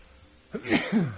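A single sneeze bursts out after a brief quiet moment, a sharp breathy blast followed by a voiced, falling tail, fairly loud and lasting about half a second.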